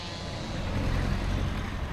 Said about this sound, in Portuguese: Aqui e ali, nas bermas da estrada, há caminhões TIR e gruas que levantam toneladas de troncos.